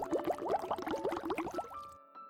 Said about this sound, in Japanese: Yeah! と泡吹き虫がブクブク泡を吹きながら言います。